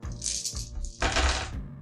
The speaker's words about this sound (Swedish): Slå nio tärningar